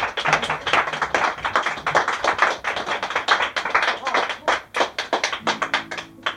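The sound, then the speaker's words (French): An audience applauds a performer as he is introduced, a dense, steady patter of many hands clapping that thins slightly toward the end, with a few sharper individual claps standing out. “Et évidemment, on l'applaudit.”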